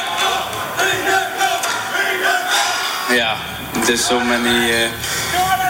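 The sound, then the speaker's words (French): A large crowd at the Tour de France chants the name of cyclist Jonas Vingegaard, in the yellow jersey, in unison, loud rhythmic bursts of many voices rising and falling over a steady roar of cheering throughout. “Vous entendez le public qui scande son nom, Vingegaard.”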